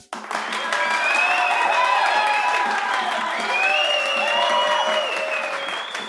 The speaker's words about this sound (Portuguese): Não, uma salva de palmas pro